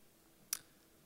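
A single sharp mouse click, short and crisp, advancing to the next slide, with faint background hiss.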